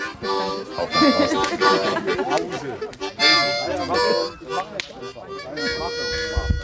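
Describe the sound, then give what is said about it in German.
A harmonica plays bluesy, reedy notes at a campfire at the close of a meet-up, bending and sustaining phrases with a few sharp breathy accents, fairly loud, with a faint background murmur. “Okay, das Aufspurtreffen klingt aus am Lagerfeuer mit Mundharmonika Blues.”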